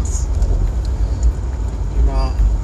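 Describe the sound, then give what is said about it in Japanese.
A loud, steady low rumble of a car interior while driving in the rain in Kitakyushu, Japan, on the way to deliver an order, with constant road vibration droning throughout and a brief faint voice surfacing near the end. “それを今から、えー、納品に行こうと思っておりますドライブトーク、えすごいあからさまにあの振動音とか入ってとてもお聞き苦しいとは思うんですけどちょっと収録を続けたいと思っております”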